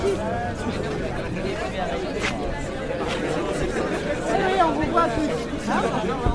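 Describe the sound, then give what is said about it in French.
Dense crowd chatter fills a busy, crowded bar, many overlapping voices blending into a steady hubbub with occasional louder exclamations rising above the babble. “Ça réouvre au bout d'un mois. Et il y a énormément de monde.”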